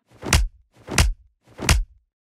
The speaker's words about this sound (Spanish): recrean una pelea con unos cuantos periódicos enrollados.